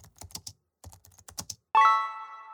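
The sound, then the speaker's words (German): Quick bursts of typing on a computer keyboard as someone searches something online, crisp clicking keys in two short runs with a brief pause between, followed by a sudden loud ringing tone that sustains and slowly fades. No one speaks. “Warte, ich google das schnell für dich.”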